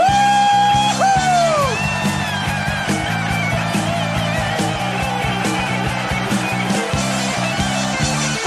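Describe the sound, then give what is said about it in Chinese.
A crowd cheers and applauds loudly over sustained music, giving their applause and cheers to the Lord, with a high gliding whoop rising above the din in the first couple of seconds and excited shouts scattered throughout. “让我们将我们的掌声欢呼归给我们的主，哈利路亚！”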